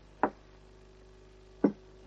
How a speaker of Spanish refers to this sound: Justina deja una bandeja frente a ellos. Aquí tenéis. Les da los platos.